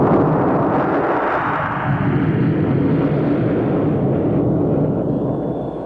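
The large presidential jet aircraft carrying Lyndon Johnson, 36th President of the United States, roars in steadily while landing, a loud, dense engine rumble that holds for several seconds and eases slightly at the end, with no voices over it.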